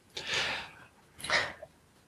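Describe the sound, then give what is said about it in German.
Two audible breaths, a longer inhale followed by a shorter exhale, fairly soft, with no talking. “Ich habe einen Atmen gehört, ich wollte jetzt nicht euch äh, in den Tod reden.”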